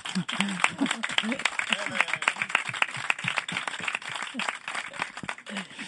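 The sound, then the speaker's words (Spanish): A small group on a radio programme applauds a guest steadily, with dense, crackling claps filling the whole stretch at a fairly even loudness, while voices chatter and call out underneath. “¿Te han dado alguna vez un aplauso en un, programa de pues radio?”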